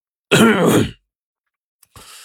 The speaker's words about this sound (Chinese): 却见李跛子呀敲了敲棋盘，咳嗽了一声